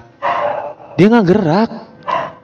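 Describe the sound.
A dog barks in a drawn-out, wavering burst, loud, with a person talking briefly just before and after.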